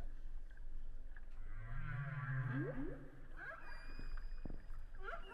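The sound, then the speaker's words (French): Whale song recorded underwater by a hydrophone: a low droning moan followed by rising, sweeping calls and faint high whistles, echoing through a steady murky underwater hiss with no talking. “C'est-à-dire que tu peux entendre ce son-là et ne pas voir la baleine.”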